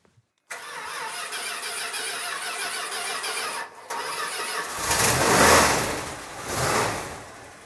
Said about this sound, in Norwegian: Det trengs et par forsøk, men han starter som regel til slutt. Den 30 år gamle amerikanske Dodge-brannbilen til brannvesenet i Nedstrand er stasjonens nyeste kjøretøy.